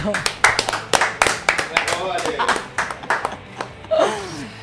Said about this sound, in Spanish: No, la que responde, la, la que tiene la camiseta puesta acá hay que aplaudirla acá en, el momento.